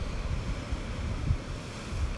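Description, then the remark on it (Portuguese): Steady wash of sea waves rolling in at sunset, a continuous low roar mixed with wind rumbling across the microphone, with a slightly stronger surge near the middle and no voices. “ou como agora, ao pôr do sol, ele se torna um azul escuro, mais cinzento, mas cheio de movimento, cheio de força.”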